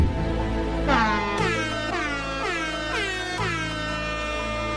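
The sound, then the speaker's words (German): A rapid series of loud, brassy air horn blasts, about five repeated pulses over a sustained low drone, each with a sliding harmonic-rich tone, no speech. “Ich wollte einfach noch ein paar Airhorns unterbringen.”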